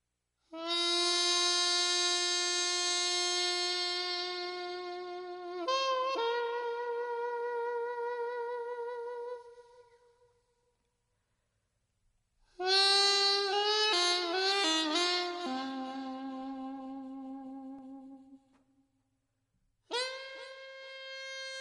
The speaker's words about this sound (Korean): 이게 바로 피리소리입니다. 놀라셨죠? 청취자분들도 아마 깜짝 놀라는 분들이 있을 거예요. 이런 소리가 다 있나.